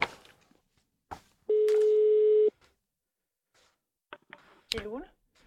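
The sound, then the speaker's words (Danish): A single loud, steady telephone ringing tone lasts about a second, preceded by a few faint clicks, with a brief burst of someone's voice near the end; a live radio show is calling someone about what is happening in Sorø. “Men de har ikke taget telefonen endnu. Nå, de har ikke taget telefonen endnu. Vi prøver en anden her.”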